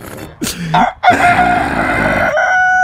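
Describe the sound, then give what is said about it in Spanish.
A rooster crows loudly, a short sharp opening call followed by a long, strained, drawn-out cock-a-doodle-doo that holds for nearly two seconds. “Ya hasta los gallos están ah. cantando y a mí ni me gustan los gallos.”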